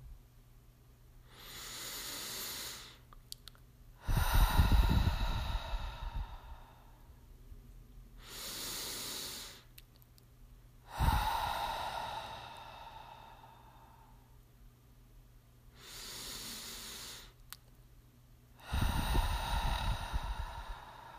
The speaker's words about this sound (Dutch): Sluit je ogen Adem drie keer in door je neus en uit door je mond in je eigen tempo.